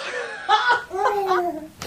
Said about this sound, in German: Das im Hintergrund ist übrigens Katas Baby. Nur, falls ihr euch fragt, wo die Geräusche herkommen.